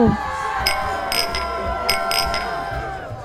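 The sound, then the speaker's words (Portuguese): Several bright glass clinks ring out in quick succession, a few close together, over a murmuring crowd and lively background chatter, as in a group toast. “Um brinde a isso?”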